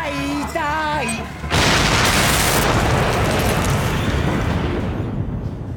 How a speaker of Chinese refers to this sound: 几个平时不安分的男同学冲上去想合力制服住男主，然而他轻点手表，墙角再次爆炸。